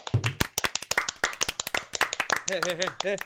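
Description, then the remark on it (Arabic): A quick burst of sharp hand claps from a few people, loud and irregular, applauding an intro, with voices calling out and a sung-like tone rising over the clapping near the end. “هذا اول يوم بتاريخ البودكاست نسوي انترو محترم تصفيق”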